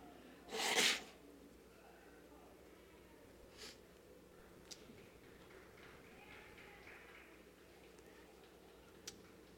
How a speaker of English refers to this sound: Pardon me as I blow my nose.